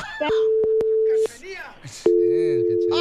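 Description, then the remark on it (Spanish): A phone line's busy tone after a hang-up: a steady, low electronic hum sounding in two long stretches, with people talking loudly over it and in the gap between. “¡Ya colgó, cara de perro!”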